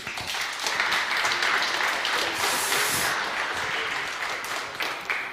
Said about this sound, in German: Lasst sie uns mit Beifall begrüßen.